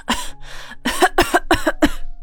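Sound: coughing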